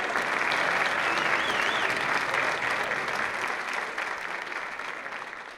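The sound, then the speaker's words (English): An audience stands and claps steadily for several seconds, a dense, even wash of many hands that stays loud before easing off slightly toward the end. “Ladies and gentlemen, let's all stand and give a nice round of applause.”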